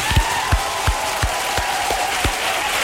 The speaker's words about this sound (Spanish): Señoras y señores, un fuerte aplauso